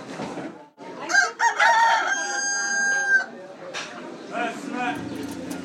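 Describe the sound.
A rooster crows loudly, one long drawn-out call, with hens clucking around it and a murmur of voices in the background, at a market in Fes where buyers pick a live chicken that is taken inside and handed back prepared.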